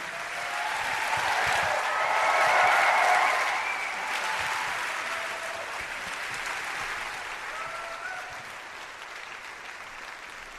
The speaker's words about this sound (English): thank you so much for joining us please give it up